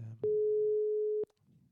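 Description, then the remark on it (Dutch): A single steady telephone ringback tone of about one second from an outgoing call placed live on air to a guest from BV Sport who is in his car, pitched mid-low and loud, with a soft click at each end; faint talk murmurs just before and after it. “We gaan namelijk bellen met uh, Bos van BV Sport. Hij gaat al over.”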